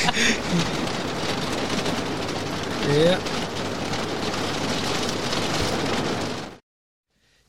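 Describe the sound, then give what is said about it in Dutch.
Dense, steady pelting of hail hammering a roof, a loud continuous clatter lasting several seconds before cutting off abruptly. A voice briefly speaks over it. “Oh, we gaan even pauzeren voor de hagel.”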